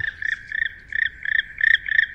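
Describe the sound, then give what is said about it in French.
A black woodpecker's flight call: a quick, steady series of about seven harsh, rolling notes, fairly loud and clear, with no voices and only faint low background noise. “Il y a des cris qui sont émis seulement en vol, comme par exemple certains cris du, du pic noir.”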